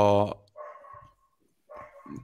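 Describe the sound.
A single loud dog bark cuts in sharply at the start, followed by softer voices talking in the background.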